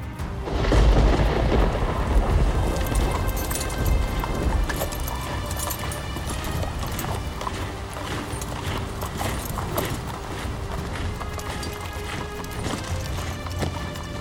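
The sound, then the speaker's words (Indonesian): Many camel hooves clip-clop steadily in an uneven, overlapping rhythm as Abu Sufyan's troops set off back to Mecca after a storm, set against a deep rumbling wind that is loudest at the start and then settles into a constant background roar. “Kemudian perlahan dia menaiki untanya sambil menggerutu.”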